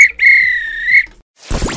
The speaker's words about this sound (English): This this are a real bit of extra time, this is when the referee blew the whistle because it's finished.